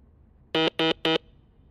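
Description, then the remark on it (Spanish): Three short, evenly spaced Morse code beeps spelling the letter S, a bright buzzy tone at moderate loudness with quiet pauses between, and no other sound around them. “Este pitido que acaban de escuchar corresponde a la letra S en sonido Morse.”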